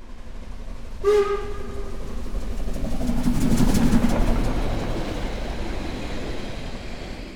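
A local commuter train running: a short, bright horn toot sounds once, then a steady, loud rumbling and rattling roll builds, peaks, and eases slightly while continuing. No one speaks.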